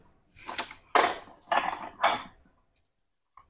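Dishes clink and clatter in a few quick bursts, like tableware being shuffled and moved around as someone searches through their dishes for a suitable serving dish, followed by a short pause and one faint final tap.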